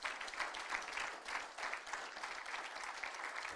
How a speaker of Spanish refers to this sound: Un fuerte aplauso al Señor Jesucristo.